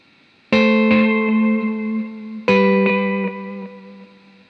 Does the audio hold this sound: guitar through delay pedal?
yes